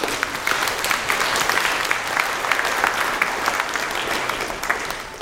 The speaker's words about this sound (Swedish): Ja, bra. Applåd på det.